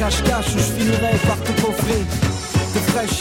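Accordion chords play over a steady, punchy bass-and-drum beat, the reedy sustained tones filling a loud, dense music mix with no distinct voice standing out.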